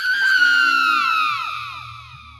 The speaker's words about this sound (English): She got out of the car, slamming the door, and turned to look around for him. Then she let out a blood curdling scream.